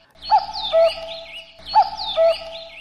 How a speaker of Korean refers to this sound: 예, 이 이쁜 뻐꾸기 소리 잘 찾아주시기 바랍니다.